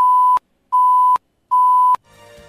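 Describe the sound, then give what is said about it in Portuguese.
Three loud, steady electronic warning beeps, evenly spaced with short silences between, each ending in a sharp click, alerting a candidate in a live radio interview that 10 seconds remain in her 10-minute block, followed by faint background sound as they stop. “Restando 10 segundos para o encerramento do bloco, a candidata vai ouvir esse alerta.”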